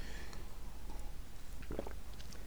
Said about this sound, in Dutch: En eh, even een slokje water nemen.